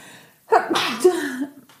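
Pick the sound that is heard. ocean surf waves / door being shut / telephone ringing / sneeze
sneeze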